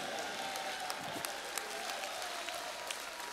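A church audience applauds the Lord in a steady, dense patter of many hands clapping at once, fairly soft and even throughout, with no voices standing out.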